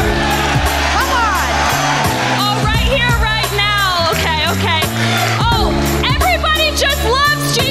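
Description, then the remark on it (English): A loud, sustained roar of a wrestling crowd cheering, with rising whoops and yells throughout and a steady, pounding low rhythm underneath, continuous for the whole stretch. “Yeah, go ahead, play to the crowd, do what you do best.”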